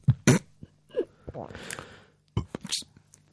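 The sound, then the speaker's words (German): A voice imitates a burp with a few short, croaky, guttural bursts and breathy noises, moderately loud, with brief pauses between them. “Ich kenne solche Leute, die machen das hört sich ungefähr so an.”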